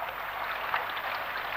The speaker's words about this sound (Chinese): 第二天早上，哗啦一声，拉开了窗帘儿，只见窗外下着好大的雨呢。